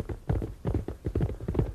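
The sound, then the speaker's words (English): Steady clip-clop of a horse's hooves as it is ridden to Sherwood Forest, a run of hollow knocking beats in an uneven trotting rhythm, moderately loud, with no voices. “Then she took her horse and went to Sherwood Forest.”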